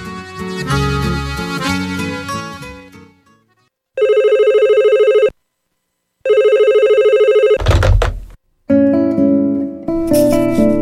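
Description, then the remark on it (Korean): A phone rings with two clear electronic trill bursts separated by silence, loud, a call coming in very early in the morning just after getting out of bed, framed by brief musical passages before and after with no talking. “침대에서 막 일어난 내게 전화 한 통이 걸려왔다.”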